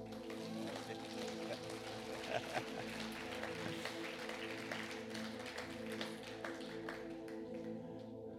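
Sustained audience applause, a dense, even wash of many hands clapping for about eight seconds at steady loudness, with a low, steady tonal hum running underneath.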